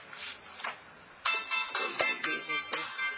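A mobile phone ringtone plays, a bright electronic melody of repeating short chiming notes at moderate volume, with no one speaking over it.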